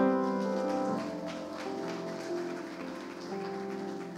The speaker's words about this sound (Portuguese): Aplauda o Senhor.